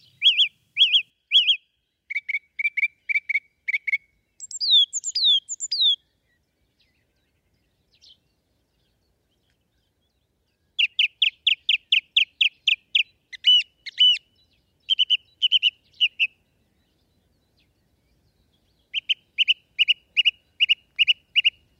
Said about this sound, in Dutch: op de Veluwe, wederom bij het Gelderse buurschap 3, om te luisteren naar zijn verhaal achter het geluid van de zanglijster.